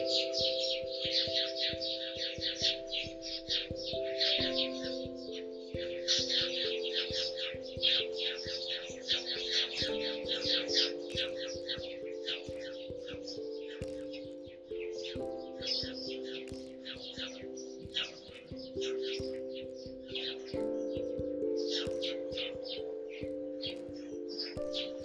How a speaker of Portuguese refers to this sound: Me vejo abençoado pelo canto dos passarinhos.